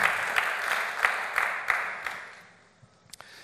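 An audience applauds, a dense wash of clapping with a few sharper claps standing out, then it tapers off over a couple of seconds into scattered final claps.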